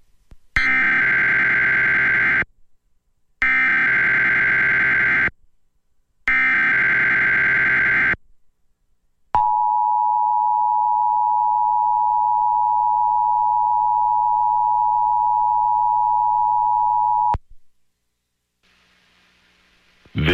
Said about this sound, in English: This is a test of the emergency alert system.